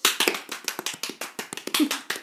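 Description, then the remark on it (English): A brief burst of hand clapping, a quick, uneven patter of sharp claps from a small group keeping up steadily for a couple of seconds with no talking. “I think we deserve a round of applause.”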